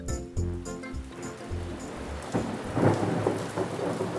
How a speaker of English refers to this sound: Oh no, it's raining, and I had plans to be outside all day.